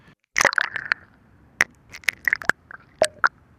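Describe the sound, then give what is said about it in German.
Underwater bubbling captured by a hydrophone lowered into the Spree river: an irregular series of sharp pops and gurgles, some ringing briefly, in a quick cluster and then scattered bursts, with no voices. “ja, man kann auf jeden Fall so ein Blubbern irgendwie erahnen, ne? wenn es da reintaucht.”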